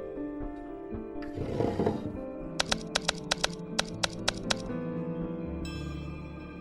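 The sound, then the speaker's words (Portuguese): A short burst of about a dozen crisp, distinct mechanical typewriter key strikes as a message is typed, tapped in an uneven rhythm over a steady low background drone, with no one talking. “E aí eu vou fazer a mesma mensagem na máquina de escrever.”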